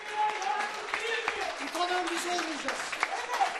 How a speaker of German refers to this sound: Applaus für den Dozenten